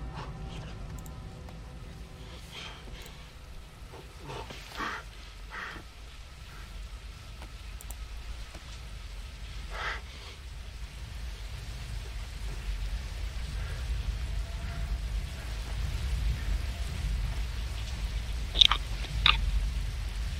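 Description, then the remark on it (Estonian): Steady rain falls throughout, a continuous hiss over a low rumble with scattered drips and taps, growing slightly heavier toward the end, with a couple of sharper splashes near the close. “vihma sajab.”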